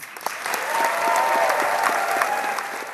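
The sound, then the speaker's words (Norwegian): A full house at the Winter Garden Theatre in Toronto gives director Liv Ullmann a standing ovation after the world premiere of the film 'Miss Julie', dense overlapping clapping at a sustained level with a few sharper claps standing out. “Liv Ullmann fikk stående applaus etter gårsdagens verdenspremiere på 'Frøken Julie' i ærverdige Winter Garden Theatre i Toronto.”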